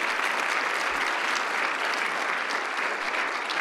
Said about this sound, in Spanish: Denle un aplauso a Cristo, pédeselo con todo su corazón.